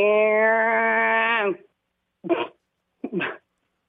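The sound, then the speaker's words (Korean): A voice, on a second try, imitates electric hair clippers with a steady, droning buzz lasting over a second, followed by two short, rough vocal bursts after brief pauses. Fairly loud. “자 전기 바리깡 다시 갑니다.”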